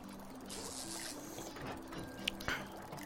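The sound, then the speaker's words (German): A thin, steady trickle of grain distillate, about 85 percent alcohol, runs from a heated still in a lab over a low mechanical hum, with a couple of sharp drip-like ticks near the end. It is fairly quiet, with no talking. “Schau mal, Kleine, wenn ich das jetzt erhitze, wird aus dem ehemaligen Getreide Alkohol.”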